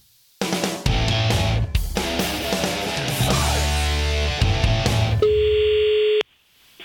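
A phone call is placed: several seconds of bright, busy electronic call tones give way to a steady, sustained ringing tone that holds for about a second before cutting off. No one speaks.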